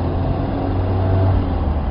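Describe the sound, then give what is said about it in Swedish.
Steady low engine rumble and road drone heard from inside a moving Volvo 1800 ES car, a continuous hum with a faint tonal whine, no voices present. “Ja, direkt ifrån Volvo 1800 ESen. Nu, eh, nu jävlar är det kallt i bilen kan jag säga.”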